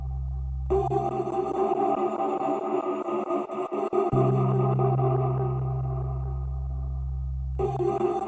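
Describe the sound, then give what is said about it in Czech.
Computer-generated electronic music: layered, sustained synthetic tones over a deep bass drone, shifting in texture partway through, playing steadily at moderate loudness with no voices. “Poté do vína vloží sondu a podle toho, jak se kapalina pohybuje, se zvuky v počítači mixují a vytváří jedinečnou hudbu.”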